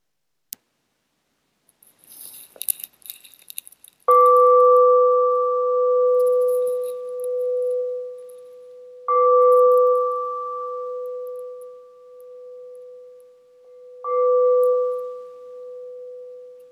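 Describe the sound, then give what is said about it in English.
A bell is struck three times at even intervals of about five seconds, each mid-pitched tone ringing out with a long, smooth sustain. Faint clicks and rustling come before the first strike. “Passing through of a thought, of a sensation, of a bell ringing.”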